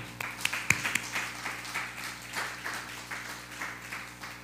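An audience breaks into applause, a dense patter of many hands clapping at a steady level, with a few sharper, louder claps near the start before it settles into an even wash.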